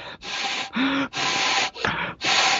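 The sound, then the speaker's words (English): A person imitates a bull's wheezing breath, blowing five forceful, airy bursts through the nose in a quick, uneven rhythm, fairly loud, with no talking. “I even blow through my nose a lot of times. If you, a bull will do that, he starts wheezing.”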